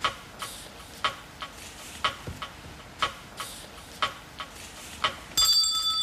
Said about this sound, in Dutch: Ring je het belletje als je het hebt?